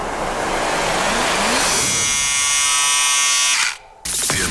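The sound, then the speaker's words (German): A loud electric shaver buzzes steadily as someone is being shaved, its harsh whirring tone holding for a few seconds before cutting off abruptly, followed by a brief quiet moment and then noise again. “wird rasiert. Mit den Besten der Besten.”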